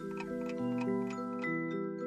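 A music box being wound up: steady, evenly spaced ratcheting clicks, fairly soft, over a background of sustained, gently shifting musical tones. No one speaks.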